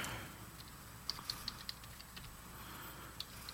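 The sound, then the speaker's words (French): Soft, irregular keystrokes on a computer keyboard as someone types the name Roman Reigns: a quick run of clicks, a short pause, then a couple more taps, fairly quiet against a faint background hiss with no talking. “Euh, écris Roman Reigns tout de suite.”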